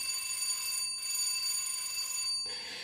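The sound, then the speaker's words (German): A bright bell rings in long sustained bursts, broken by two short pauses, loud, with no voices. “Und jetzt läutet es schon wieder.”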